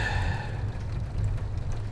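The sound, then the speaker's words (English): A steady wash of storm rain with a deep, continuous rumble underneath, holding an even loudness throughout; a faint tonal hum fades out in the first moments. “And by morning, the storm will have ended.”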